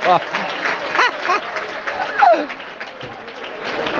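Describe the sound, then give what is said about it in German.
Steady hand-clapping applause fills the scene for several seconds, a dense continuous patter with excited voices and laughter mixed in over it, moderately loud. “Ich würde gerne applaudieren.”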